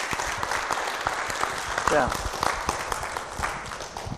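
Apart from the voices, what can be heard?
audience applause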